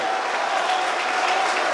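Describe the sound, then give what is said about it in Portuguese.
An audience in Natal, Brazil, applauds to glorify God in a steady, dense wash of many hands clapping, holding at an even loudness for the whole stretch without any voices on top. “E aplaudam, aplaudam, aplaudam e não parem.”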